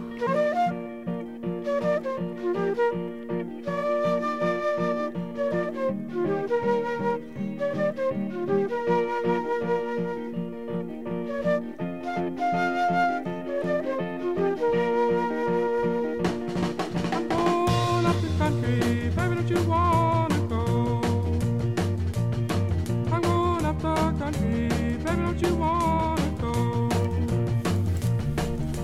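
A blues rock band song where a breezy flute melody rides over bass and guitar, then the full band with drums kicks in about halfway through, loud and steady, with no talking.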